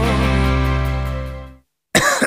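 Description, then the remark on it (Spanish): A sustained, steady musical tone fades out, and after a brief silence a person coughs loudly, a harsh burst at the very end, in an advertisement for Herbetón Respire cough syrup. “¿Cansado de toser?”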